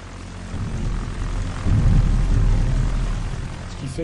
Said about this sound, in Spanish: El Reich estaba debilitado y los berlineses sufrían los bombardeos de los aviones aliados. Todos los días había ataques diurnos de los estadounidenses y por la noche atacaban los mosquitos británicos.